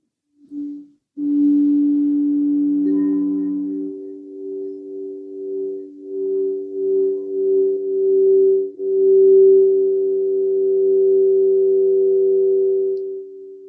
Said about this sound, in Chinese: 这个是水晶音波， 对，水晶音波的声音。